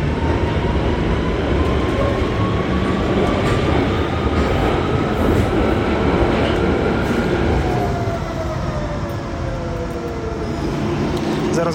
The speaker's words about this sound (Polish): Czeka nas teraz po prostu przejażdżka metrem, a potem przysiadka w kolejne metro i wysiadka na stacji London City.